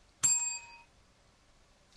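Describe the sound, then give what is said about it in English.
A single bright bell strike, loud, with a sharp metallic attack and clear ringing overtones that fade over about half a second, followed by a small click; picked up by a second microphone, a Shure SM58, set up directly over the bell. “So I got a, I have a, I got a second microphone here set up directly over the bell, pointing right.”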